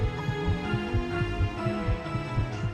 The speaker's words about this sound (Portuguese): O coração batia acelerado, os dedos atacavam o teclado formando acordes disformes.